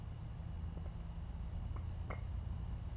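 A steady, high-pitched chorus of crickets drones on continuously in the background, accompanied by a low outdoor rumble and a few faint, scattered pops.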